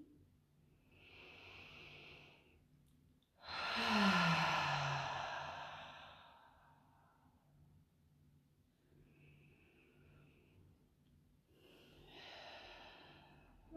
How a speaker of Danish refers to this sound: Lad os tage en øh, dyb vejrtrækning sammen.